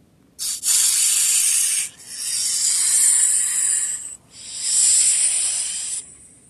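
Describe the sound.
A snake hisses loudly in three long, steady bursts separated by brief pauses, with no voices.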